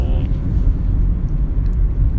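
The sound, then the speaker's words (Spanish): Steady low rumble of road traffic heard from inside a moving car, a dense continuous drone with faint higher whooshes, fairly loud and unbroken, with no talking. “Perdón, es que estoy en el tráfico.”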